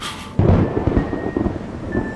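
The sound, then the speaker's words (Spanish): Thunder from a strong approaching storm bursts in abruptly after a brief hiss, then rolls on as a loud, deep, continuous rumble with uneven swells. No voices are present. “mejor vamos adentro, que parece que la tormenta viene fuerte.”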